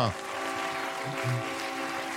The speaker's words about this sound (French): Et avec maintenant les cornes de brume, évidemment des bateaux qui célèbrent la littérature et la grande librairie